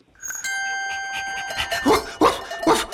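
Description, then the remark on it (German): A ringing bell-like chime sustains from the start, then a farm dog on a farm barks three times in quick succession, loud, over the fading tone. “Das, was du hörst, das ist der Hofhund.”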